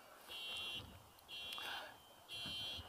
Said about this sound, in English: He's not counting our trespasses against them whether that's a major trespass or a trespass like allowing that alarm to continue to go off, it doesn't count our trespasses against it.